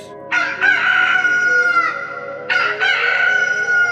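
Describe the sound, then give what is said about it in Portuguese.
A rooster crows loudly, two long strained calls in quick succession with a brief pause between, no voices present. “Mal o ovo se desfaz ao cair, claro, salta dele, nem mais nem menos, do que o galo da missa da meia-noite.”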